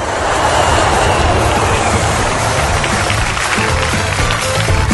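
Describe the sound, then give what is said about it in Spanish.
An airplane landing: a loud, steady roar of engine and rushing air fills all five seconds, dense and unbroken, with a rough, crackling texture and no voices. “Por eso los colombianos aplaudimos cuando aterriza el avión.”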